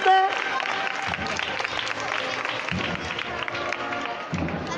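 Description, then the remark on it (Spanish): Sustained applause from the whole public at a Holy Thursday procession in Jaén, as the paso of the Cristo de la Expiración is lowered again at the second knock of the llamador, around 7:37 in the evening. A dense, steady patter of many hands clapping at an even loudness throughout, with murmuring voices mixed into the noise. “Levantando el aplauso de todo el público.”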